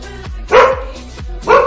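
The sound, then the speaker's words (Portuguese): A female pet dog named Paulinha barks several times, two loud sharp barks alternating with softer, shorter yips in an uneven rhythm, with no talking over them. “Quem falou isso? Foi a Paulinha, minha cachorra.”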